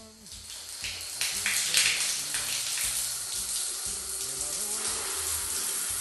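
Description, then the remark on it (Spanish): Shower water runs steadily, a continuous hiss that swells slightly in the first two seconds and then holds, with a faint low murmur beneath it. “Perdámonos en el vapor del cuarto y arrullemos nuestros cuerpos con el agua.”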